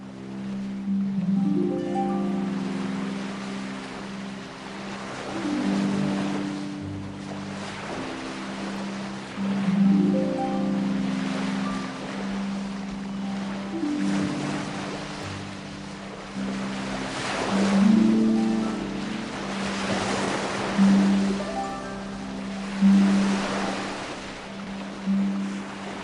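Sea waves wash in at the port of El Musel in Gijón, Asturias, Spain, surging and receding every few seconds over a steady low rumble, with some wind buffeting the microphone and no voices.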